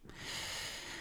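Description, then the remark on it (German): A single sneeze: a sudden, breathy, hissing burst of air that holds for most of a second before cutting off. It is fairly soft, with no one talking over it. “Gesundheit.”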